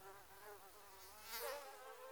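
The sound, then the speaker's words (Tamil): A high, thin mosquito whine drones steadily, wavering slightly in pitch and swelling briefly louder midway before settling again, with no voices present. “உயிரிழப்பை அதிகம் ஏற்படுத்தும் இந்த வகை நோய்களை பரப்பும் கொசுக்களை கட்டுப்படுத்த நாம் முன்னெச்சரிக்கை நடவடிக்கைகளை எடுக்க வேண்டும்”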